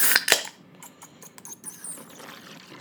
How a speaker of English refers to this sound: It's pouring Guinness.